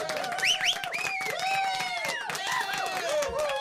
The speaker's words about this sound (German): Kriegst du erstmal einen Applaus?